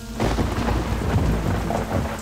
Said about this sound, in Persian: آسمان رد و برق عظیمی زد و بازتابش زمین جلوی ماشین را به دو قسمت تقسیم کرد.